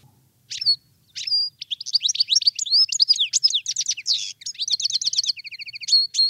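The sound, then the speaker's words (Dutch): A European goldfinch sings a rapid, bright, twittering song of tinkling notes and buzzy trills, clear, starting with a couple of separate calls before a continuous liquid stream. “De putter.”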